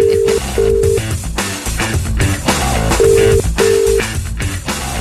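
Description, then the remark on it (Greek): A phone line rings out with a ringback tone in two paired bursts, separated by a pause of a couple of seconds, over a loud, steady music bed with no talking, as the Sokafe Morning Show radio programme places a wake-up call to a listener. “κάποιος μας έβαλε να σε πάρουμε τηλέφωνο”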